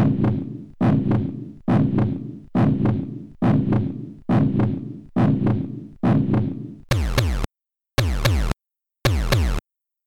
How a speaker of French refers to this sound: trois battements et c'est trois battements euh, radicalement différents parce que on a vraiment une version arcade qui essaye de singer entre guillemets un vrai bruit de cœur c'est pas, c'est pas parfait